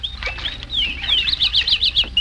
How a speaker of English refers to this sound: And now let's go out to Jack Benny's house in Beverly Hills. It's such a lovely morning that outside on the front lawn, we hear the splashing of birds in the bird bath.